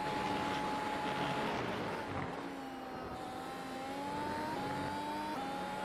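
A race car engine whines steadily at high revs as the car goes through a corner, overdriving the entry, its pitch dipping and then climbing again as it eases off and accelerates, with no other voices, continuous throughout.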